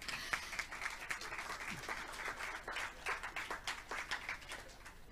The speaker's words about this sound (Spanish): Fuerza. Un aplauso.